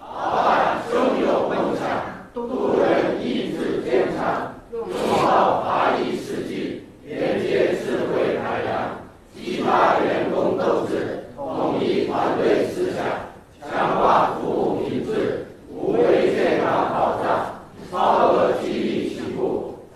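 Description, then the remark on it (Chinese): A large audience chants in unison a doggerel-style rhyme that Huayi staff composed about a service case, loud and steady, delivered as about eight even phrases with brief pauses between them in a regular rhythm. “各位如果不介意的话呢，各位也可以集体练一遍啊。”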